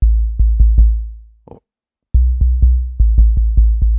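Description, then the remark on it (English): Deep, booming synthesized electronic kick drums thump in a steady pattern, each with a sharp noise click on top, briefly interrupted by a short burst of hiss before a quicker run of kicks resumes. “Make A Kick”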